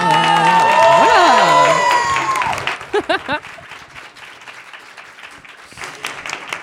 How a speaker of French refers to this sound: C'était un peu timide les applaudissements là quand même.